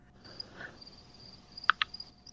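Crickets chirp in a faint, steady high trill, sounding distant as if drifting in from outside, with a couple of brief sharp clicks partway through and no talking.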